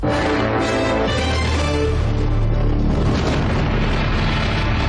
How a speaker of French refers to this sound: Là, c'est le temps du segment. Il reste un peu de temps. S'il te plaît, jingle!